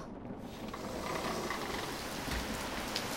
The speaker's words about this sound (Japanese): 雨か